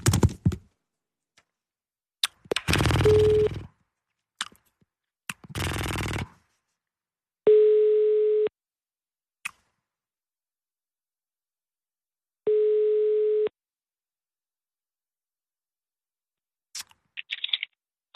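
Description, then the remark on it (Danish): A telephone ringback tone of a call to Ulla Terkelsen in New York: a steady, mid-pitched beep lasting about a second, repeating with long pauses, preceded by clicks and rustling handset-handling noises. No one speaks. “så ringer jeg lige til, øh, til Ulla.”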